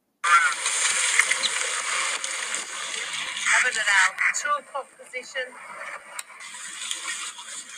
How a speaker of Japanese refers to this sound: この後にちょっとボートのね、音をお聞かせします。これがですね、南極のこう、小島に行くときに10人乗りのボートの、と海の音ですね。